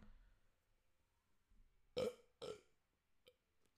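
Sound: burp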